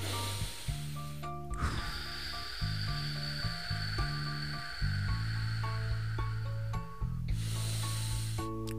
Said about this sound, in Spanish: Mira, voy a, voy a poner los labios para que se escuche. Cuando en realidad todos deberíamos respirar al máximo, así.